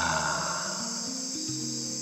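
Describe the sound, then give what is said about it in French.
Dense jungle night ambience: a constant, shrill chorus of chirping insects fills the background at a steady level, with a faint low hum shifting underneath and no voices. “Je sais pas si vous arrivez à entendre les ambiances, mais on est dans la. dans la jungle.”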